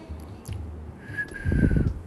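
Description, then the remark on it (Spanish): A single steady whistled note holds for just under a second, moderately quiet, while a low rumbling noise swells underneath near the end. “No silbes por la noche o atraerás espíritus malignos o a veces serpientes.”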